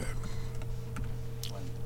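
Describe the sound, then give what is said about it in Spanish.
A handful of light, dry taps played as music on a small matchbox, unevenly spaced, against a steady low background hum. “Yo sé que hay la música con la caja de cerillos, es así.”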